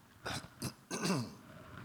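A person with a slight cough clears their throat in three short, raspy bursts, the last one longer and rougher, followed by quiet.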